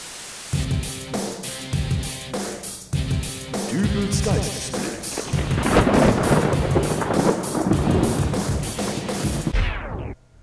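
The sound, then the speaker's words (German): Rain and rolling thunder sweep in over a pulsing, rhythmic musical backdrop, the rumble swelling loud and broad midway before cutting off abruptly at the end. “Dann wollen wir jetzt einfach mal hoffen, dass nicht urplötzlich ein Gewitter heranzieht”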